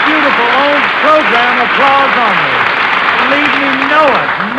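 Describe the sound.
Steady, dense applause from a studio audience fills the whole stretch, a loud hissing wash of clapping with voices calling out over it.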